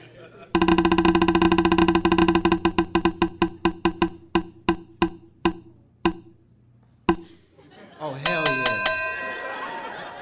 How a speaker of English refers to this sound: Let's spin the wheel.